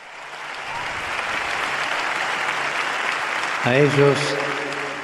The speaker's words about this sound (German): Sie verdienen diesen Applaus für ihren großartigen Dienst.